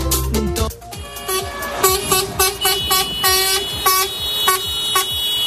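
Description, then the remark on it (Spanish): Vehicle horns honk repeatedly and overlap, a dense mix of loud sustained blasts and short toots at several pitches, with engine rumble underneath and no talking, at a farmers' protest in France occupying the border roads between Spain and France. “El de las protestas de los agricultores en Francia, los cuales han ocupado las carreteras fronterizas entre España y el país galo ya han provocado severos problemas para los transportistas.”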